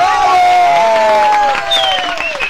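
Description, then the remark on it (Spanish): A crowd cheers and whoops loudly, with high sustained shouts over a dense wash of clapping that carries on steadily for a couple of seconds. “Vamos con eso, el aplauso.”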